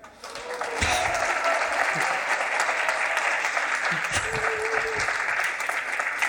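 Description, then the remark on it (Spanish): A live audience at the Hay Festival bursts into sustained, dense applause for Isabel Coixet, who had just received the Premio Nacional de Cinematografía in San Sebastián, steady and loud from start to finish, with a few faint shouts or cheers mixed into the clapping. “Otro aplauso.”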